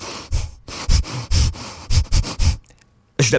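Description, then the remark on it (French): A voice imitates a moose searching for something while leaning against a hunting blind, making it move: a rapid run of breathy sniffs and huffs with soft thumps, a brief pause, then one more sharp inhale. “Lui, il cherche quelque chose, puis je l'entends respirer.”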